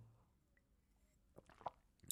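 A quiet sip of water followed by a gulp, with a few soft wet clicks and squishy mouth noises near the end and no talking.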